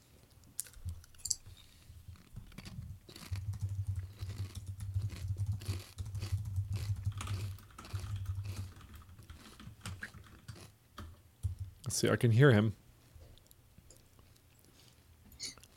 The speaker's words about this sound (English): I'm gonna take this chance to eat a chip here. I've never had these before. I found them in our cafeteria. Oh my gosh, they're delicious.